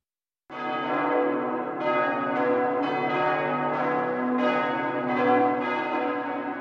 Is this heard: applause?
no